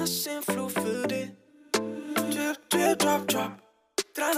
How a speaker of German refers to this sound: das, was ihr jetzt gehört habt, ist mein Lieblingslied. Mein persönliches.